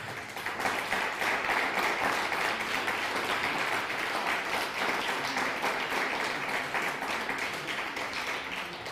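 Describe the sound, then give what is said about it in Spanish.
Sustained audience applause for Raúl Cajas, a pastor watching from Argentina: a dense, steady wash of many hands clapping at an even, fairly loud level for the whole stretch, with no clear speech over it. “Raúl Cajas, también un pastor que nos ve desde Argentina, dale un fuerte aplauso a Pastor.”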